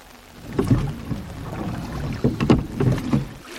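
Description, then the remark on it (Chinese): A small boat being paddled through water, with a few uneven swishing, splashing strokes rising and fading over a low watery background. No voices. “船上的小熊努力往前划，唰唰，哭声越来越大声。”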